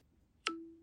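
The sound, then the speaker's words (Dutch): A single crisp snap is followed at once by a steady, pure electronic tone that slowly fades: an iPhone's alert chime as an accessory clicks onto its back, heard alone. “een accessoire wat je achter op een iPhone met heeft klikt”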